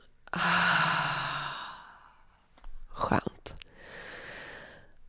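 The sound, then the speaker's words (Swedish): A long, loud exhale blown out through the mouth after a deep breath in through the nose during a guided breathing exercise, breathy and airy for over a second, followed by a brief pause and a few soft murmured vocal sounds. “Och släpp ut genom munnen.”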